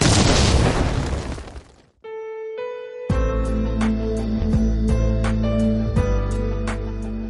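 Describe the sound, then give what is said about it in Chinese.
A loud, roaring explosion sound effect introduces a show's "生活大爆炸" (Life Big Bang) segment, bursting out and fading over about two seconds, followed by a brief sustained tone and then upbeat music with a steady, regular beat. “下面马上进入到今天的生活大爆炸环节， 瞬间爆炸。”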